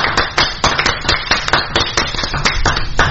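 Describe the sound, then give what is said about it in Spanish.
A few people clap their hands in steady, overlapping applause for Ariel Sena, the sharp claps fairly loud, continuing for several seconds without any talking. “Entonces, aplauso para Ariel Sena.”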